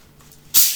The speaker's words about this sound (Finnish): Mä tähän väliin, että mä unohdin avata mun juomapullon tai vissypullon tässä välissä, joten anteeksi, nyt tulee